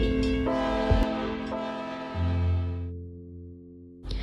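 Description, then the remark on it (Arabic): A loud, sustained train horn blares with steady harmonic tones, then a deep rumble rises as the train pulls away, the horn fading out before a brief new burst at the end. “من يريد أن يكمل الحلقة ليصعد إلى القطار حالا فهذا النداء الأخير”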